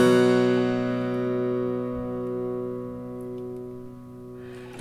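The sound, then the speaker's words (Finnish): A sustained harpsichord fifth, two plucked notes ringing together with a rich stack of overtones, slowly fading while a gentle wavering beat pulses through the tone; no talking. “Niin siinä voi kuulla semmoisen niin sanotun beating, mm. eli huojunnan, joka, joka on yleensä perusta niin kuin viritys virityksen, eli sille temperoinnille, eli sille sen jaon tekemisille.”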